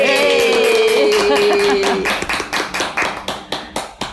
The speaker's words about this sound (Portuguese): Oba! Uma salva de palmas para nós!